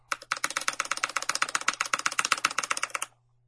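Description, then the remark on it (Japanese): Rapid, steady typing on a newly bought computer keyboard, a dense run of crisp key clicks lasting about three seconds before stopping, with no voices and a faint low hum underneath. “キーボードね、買いましたね。”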